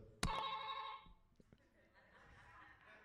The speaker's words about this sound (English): This is all Amazon could get me last minute, okay? Y'all ready? Y- y'all can hear the buzzer.